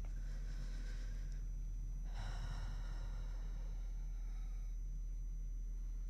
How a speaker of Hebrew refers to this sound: אז אנחנו יוצאים לדרך. ניקח לנו כמה נשימות עמוקות.